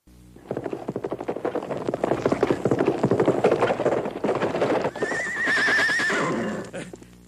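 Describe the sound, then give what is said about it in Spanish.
A horse spooked by a venomous snake neighs loudly, snorting and stamping before breaking into a long, shrill, quavering whinny near the end, with hooves clattering underneath. “Mire lo que espantó su caballo.”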